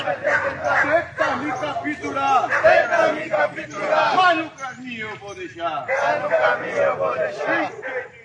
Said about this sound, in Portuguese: Pandora é a cadela preferida do pastor, um dog alemão cinzento que ficou animadíssima com a agitação, assim como toda a cachorrada da vizinhança